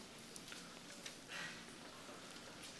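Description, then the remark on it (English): Faint, scattered papery rustles and flips as many people in an audience turn Bible pages to Acts chapter 2, with a soft swish in the middle and no one talking. “It is kind of cool to hear pages turning or to hear this on your phones.”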